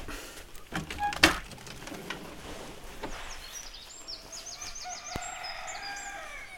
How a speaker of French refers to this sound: Le coq chante quand l'étape commence.